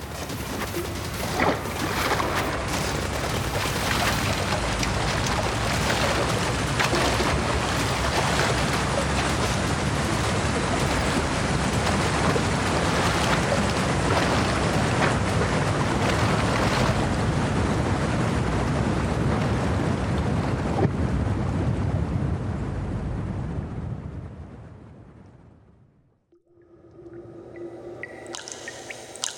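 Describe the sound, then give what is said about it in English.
A loud, continuous roar of gushing water from an activated irrigation purge pours down for about twenty-five seconds, then abruptly cuts out, leaving faint rumbling and muffled sounds afterward. “Are you sure you would like to activate irrigation purge?”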